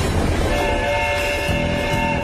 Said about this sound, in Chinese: 嗯，火车就快开进火车站了